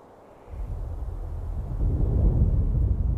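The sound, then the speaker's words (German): A deep, continuous rumbling and thundering roar from the mountains sets in after a brief quiet moment and slowly swells louder, like thunder rolling through mountains, with no voices present. “Mittlerweile haben sie schon viele Meter des Gebirges erklommen und das Dröhnen und Donnern war nun noch deutlicher zu hören.”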